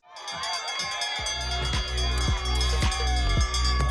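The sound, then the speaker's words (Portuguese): A bell clangs in a steady, rapid rhythm, about two strikes per second, its ringing tones carrying over a loud, roaring crowd that cheers throughout. “nós estamos ouvindo o sino anunciando o final do nosso podcast Última Volta”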